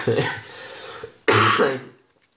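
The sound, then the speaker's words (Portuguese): Two loud coughs muffled into an elbow: a rough first burst, a short pause, then a harsher, longer one that trails off into quiet. “pronto, também eu tenho tosse, mas pronto, estou para para o cotovelo, não é?”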